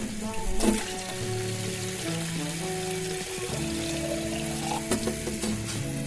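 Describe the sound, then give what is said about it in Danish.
Too much water is poured into a coffee maker for several seconds, a continuous splashing hiss with a faint rising gurgle, plus a brief knock near the start and another near the end. “Nej, det er for langt, jeg kunne for meget vand i.”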